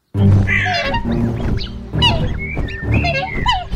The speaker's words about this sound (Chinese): 小女儿连忙带着弟弟继续往家跑，眼看就要到家了，可天鹅们又扑扇着翅膀，嘎嘎叫着追上来了。